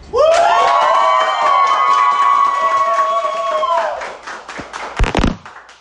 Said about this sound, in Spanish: Así que pido que, quede tatuada aquí la energía con la que iniciamos esta berraquera. Acá un fuerte aplauso.